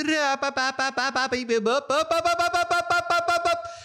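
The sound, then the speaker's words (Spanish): A frog mobile phone ringtone from 2003 plays on its own: a loud, rapid run of buzzy, voice-like staccato notes bouncing up and down in a catchy electronic rhythm, fading slightly at the end. “Más bien todo el mundo como que, oye, qué bueno, el, el, el de la rana.”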